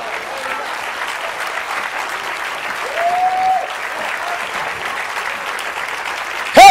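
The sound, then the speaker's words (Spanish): A church audience applauds steadily to give glory to God during a sermon, a dense wash of clapping that holds for several seconds, with a brief whoop or cheer rising above it midway and a louder burst at the very end. “Dale gloria a Dios. Un aplauso o algo.”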